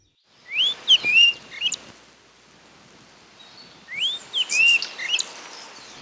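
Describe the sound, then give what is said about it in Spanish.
A chiguanco thrush sings two clear, whistled phrases of rising and falling notes, separated by a short pause, loud over a soft outdoor background hiss, at a house in Chihuahua, Arequipa. No one speaks. “Una vez, en la casa de mis abuelos en Chihuahua, Arequipa, mientras sentía la naturaleza, un chihuanco cantó.”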